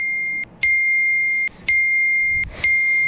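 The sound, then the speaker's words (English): A phone's electronic notification ding sounds again and again, each bright, clear tone starting with a sharp click and ringing steadily before cutting off briefly and repeating, loud, with no talking. “Okay, our, our phone goes off enough to where okay.”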